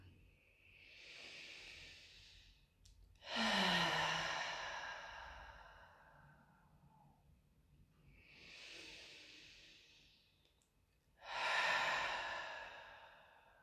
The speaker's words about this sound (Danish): Så lad os lægge øh, en hånd på hjerte og joni. Og tage nogle dybe vejrtrækninger sammen.